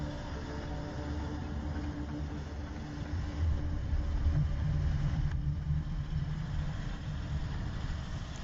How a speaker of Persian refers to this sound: خواستم به طرف ماشین بروم دوست قدم هم رفتم که ببینم ایرانی است یا عراقی که یک دفعه صدای بلدوزری را شنیدم